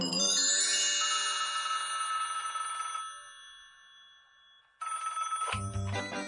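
A telephone bell rings loudly in a house, a bright metallic trill that fades out, then a second burst of ringing starts abruptly near the end. No one speaks.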